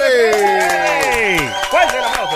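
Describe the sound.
A studio audience at radio station Play 96 welcomes an arriving guest with applause, scattered claps mixed with loud cheering and whooping voices that slide downward in pitch, sustained at steady volume for a couple of seconds.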